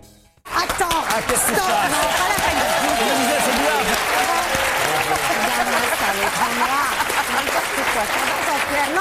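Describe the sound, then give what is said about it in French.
A studio audience breaks into loud, sustained applause that starts abruptly and keeps going, dense and steady, with cheering and crowd voices mixed into the clapping. “c'est pas la peine d'applaudir quand on coupe.”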